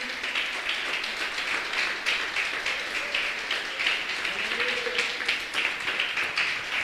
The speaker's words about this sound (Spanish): Fuerte el aplauso al Señor, aleluya.